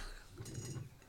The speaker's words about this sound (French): c'est le bruit du tabouret, je crois. Oui. Ah c'est Pardon, c'est le, grincement qui a duré 15 ans en voulant être discret.